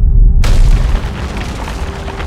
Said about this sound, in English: And it produced like a continent sized flood of lava that took about 2 million years to erupt. So it caused these giant explosions that also unleashed all these greenhouse gases into the atmosphere.